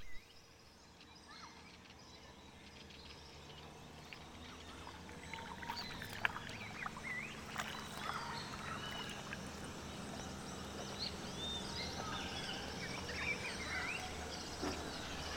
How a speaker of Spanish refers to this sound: nos llevó de madrugada en su lancha a conocer la charca.